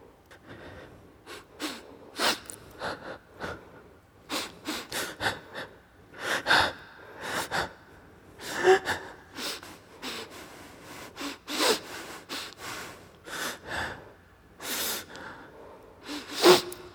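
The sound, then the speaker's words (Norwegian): Breathing at shifting speeds, from slow drawn breaths to quick sharp inhales and gasps, with no talking, the bursts clustering irregularly across the whole stretch. “Umiddelbare reaksjoner fra nervesystemet, pusten, i ulike hastigheter.”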